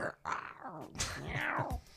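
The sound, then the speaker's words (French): A cat gives a few drawn-out, gliding meows, each call sliding downward in pitch, filling two seconds with whiny mewing and no pause between cries. “C'est un, chat, ça.”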